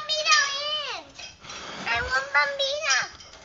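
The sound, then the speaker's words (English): A young child's high-pitched voice rings out loudly in the background, sliding up and down in excited, sing-song bursts, with faint clinks like dishes. “Kid is uh, loud.”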